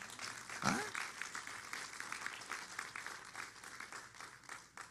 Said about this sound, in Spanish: ¿Cuántos adoran al Señor? ¿Le puedo dar un fuerte aplauso a Dios?